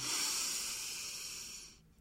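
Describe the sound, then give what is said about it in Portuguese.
One long, slow, deliberate breath, a steady airy hiss that holds for almost two seconds before trailing off into quiet, demonstrating a sequential, harmonious breath. No one speaks. “Se ela fizer dessa forma, com certeza ela faz um movimento também com o corpo, ela pode entrar em estado de pânico, assim como ela pode entrar em estado de centramento se ela fizer uma respiração sequencial, harmoniosa, por exemplo, assim, ó.”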